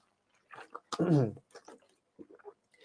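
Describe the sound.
A quiet sip of water with soft wet mouth sounds and a gulp, followed by a brief voiced exhale and a few faint lip smacks.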